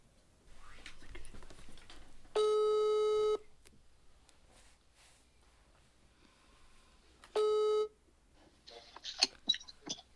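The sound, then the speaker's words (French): A phone line rings back twice while a call is being placed: a steady buzzing tone lasting about a second, a pause, then a shorter second tone, with faint whispery movement and soft rustling in between and after. “let's call Marco Let's call Marco. Ok. Ton téléphone à Marco.”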